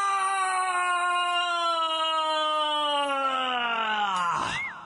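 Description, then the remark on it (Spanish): One voice holds a long, loud celebratory scream for a goal by Mexico for nearly five seconds, its pitch slowly sinking before it cracks and breaks off at the end. Nothing else is heard. “Así grité ayer.”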